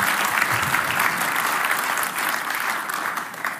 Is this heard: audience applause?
yes